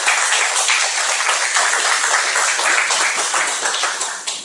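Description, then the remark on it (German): Sustained applause from an audience welcoming visiting guests, a dense wash of many hands clapping at steady loudness for several seconds before easing slightly at the end, with no talking. “So lass uns sie mit einem offenen Herzen und einem Applaus empfangen.”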